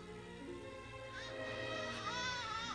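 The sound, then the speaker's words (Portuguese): A newborn baby cries in thin, wavering wails that begin after a brief pause and continue to the end, heard fairly faintly as if from a nearby room, with no talking. “Parece um choro de criança.”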